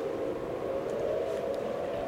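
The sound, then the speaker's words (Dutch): Air raid sirens from Amsterdam, Almere and Muiden carry across the water to an island with no sirens of its own, at noon on the first Monday of the month: a steady, sustained tone, faint and even, with a soft wash of background noise and no talking. “Het is de eerste maandag van de maand, 12 uur, en het luchtalarm gaat af.”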